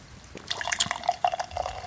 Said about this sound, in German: Oh, noch ist kalt. Ich trinke es ja, ich trink's ja direkt aus der Flasche heute hier. Edler Tropfen.